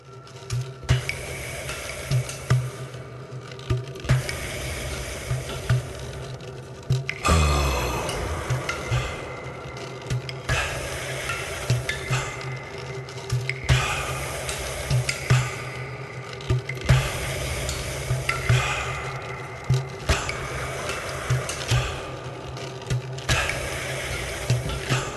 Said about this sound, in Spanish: En este caso escuchamos el agua goteando en una cueva, pero podría ser perfectamente eh, el interior de un eh, tolos Em, un monumento, una, eh, una, de esos pasadizos de los monumentos